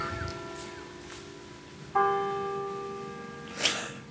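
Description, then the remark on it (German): A church bell tolls the hour, one fresh strike ringing out over the lingering hum of the previous stroke, its rich overtones sustaining and slowly fading, with a brief click near the end. “das ist die Kirche.”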